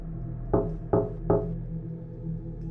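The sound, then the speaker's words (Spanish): Three evenly spaced knocks on a door, firm, landing about every 0.4 seconds over a low steady hum, with no voices. “Estaba llamando a la puerta, dando tres golpes cada ciertos segundos.”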